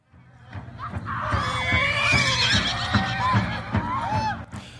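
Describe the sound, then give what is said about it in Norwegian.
Horses whinnying repeatedly over a steady low rumble, with rising and falling high-pitched neighs overlapping each other throughout and a faint rhythmic clopping underneath, during the yearly Sioux memorial ride in South Dakota, USA. “I romjulen hvert år i 30 år nå har Sioux-indianerne i Sør-Dakota arrangert et minneritt, slik at ingen skal glemme nedslaktningen av urfolket for 125 år siden.”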